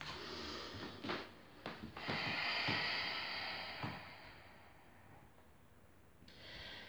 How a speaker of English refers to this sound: Inhale through the nose. Exhale through the mouth controlled breathing in and out of the nose.